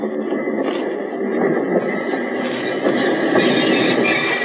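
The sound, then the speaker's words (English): A work train arriving back in La Paz rumbles steadily, a dense mechanical roar with faint rattling and a thin metallic ring above it, continuous and fairly loud throughout, with no voices. “And when, a couple of days later, you jump off the work train back in La Paz.”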